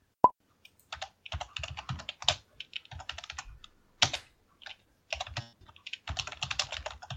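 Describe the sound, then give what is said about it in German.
Brisk typing of show notes on a computer keyboard, keys clacking in uneven bursts with short pauses between flurries and a sharper click at the start; no one speaks. “In jeder Menschengeneration werden Shownotes getippt.”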